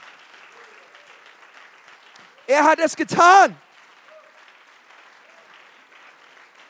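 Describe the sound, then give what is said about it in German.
Steady audience applause for Jesus, called for by a preacher during a sermon, runs throughout at a moderate level, a dense crackle of many hands clapping, with a man's loud, emphatic spoken exclamation cutting in briefly midway. “Komm, lass uns Jesus mal einen Applaus geben, oder?”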